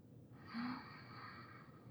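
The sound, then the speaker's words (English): A single long, deep inhale drawn in through the nose, a steady airy hiss lasting well over a second, fairly quiet, with no talking; a deep breath taken while seated, to relax at the start of a meditation. “If you don't know what a deep breath is, it'll be inhaling through your nose for up to six seconds and releasing through your mouth.”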